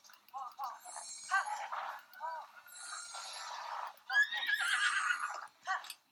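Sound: horse neighing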